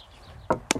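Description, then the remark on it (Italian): A cream container's cap snaps shut: two sharp plastic clicks in quick succession near the end, following a moment of quiet. “sentite questo è il suono della crema, il prick,”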